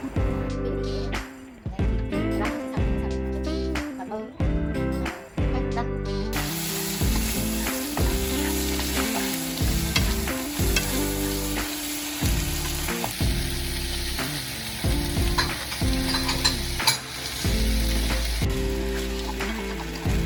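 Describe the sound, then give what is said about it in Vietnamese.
Kimchi udon with bacon and fried fish balls sizzles steadily in a hot pan, the crackle growing louder partway through, with occasional scraping as it's stirred. Rhythmic background music plays throughout, and no one speaks. “Và vậy là đã xong món kim chi udon cùng với bacon và cá viên chiên”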